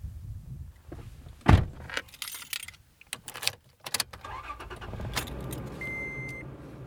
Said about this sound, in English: Randy and I pile into his pickup truck and drive a few miles down a dirt road